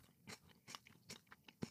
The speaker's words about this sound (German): Also er beißt nochmal ab